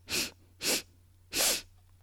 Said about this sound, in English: Inhaling three quick sniffs and exhale with your mouth. Good. Let's do it again. Ready? Three quick sniffs